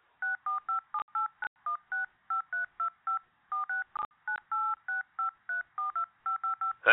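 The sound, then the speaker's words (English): A rapid series of about two dozen telephone keypad DTMF beeps as numbers are entered, each short two-tone press in quick uneven rhythm, clear with a few soft clicks between, no talking. “Please check the numbers again and re enter.”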